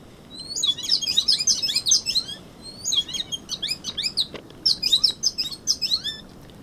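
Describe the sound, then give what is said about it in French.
A bird sings a lively, musical song of rapid chirps and trills in repeated bursts, clear, over a soft outdoor background hum with no talking, heard while walking on the Presqu'île de la Caravelle. “ou bien quand, en marchant sur la presqu'île de la Caravelle, j'ai entendu le très beau chant d'un oiseau.”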